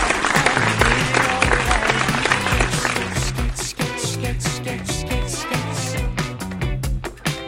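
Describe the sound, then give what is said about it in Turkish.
Loud applause, sent in tribute to footballer Burak Yılmaz, fills the first few seconds, then thins out while a rhythmic music bed with a steady bass line continues underneath. “Kendisini alkışlar gönderiyoruz.”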